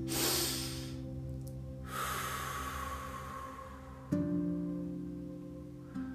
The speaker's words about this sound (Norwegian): Så sånn tilbake i grunnposisjonen. Og puster du godt inn eh, gjennom nesa, og så puster du ut gjennom munnen.